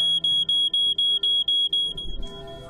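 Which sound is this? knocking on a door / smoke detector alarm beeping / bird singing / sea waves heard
smoke detector alarm beeping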